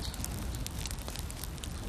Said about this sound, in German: Anschließend wird mit glühendem und frischem Holz rund um den Topf ein großes Feuer entfacht.